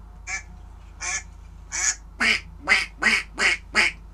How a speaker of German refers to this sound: Was hörst du noch? Was ist das? Wie heißt das auf Deutsch? Ist das der Schwan, die Gans, die Ente? Das ist die Ente. Sehr gut, genau.